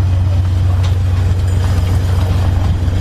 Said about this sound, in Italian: Il rumore che sentite è quello della rete che viene calata in questo momento. Il Savonarola sta compiendo una manovra a circolo. Sono le mezzanotte e 40 di questo 30 luglio, venerdì 2021. Ascoltate gli argani il lavoro che stanno facendo.